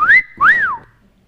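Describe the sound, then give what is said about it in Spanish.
A loud two-part wolf whistle: a short upward swoop, then a longer note that rises and glides back down, whistled alone with no talking. “Hoy no voy a la comunidad y me pongo la mini falda y me voy al centro para que todo el mundo me chifle.”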